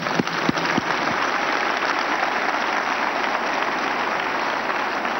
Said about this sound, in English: Clap for Jesus Christ.